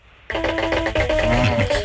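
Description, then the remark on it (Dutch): A phone rings with a melodic electronic ringtone that starts abruptly and keeps playing steadily, fairly loud, its bright repeating tones filling the short stretch. “de telefoon ready en ik, eh, ik hallo met wie?”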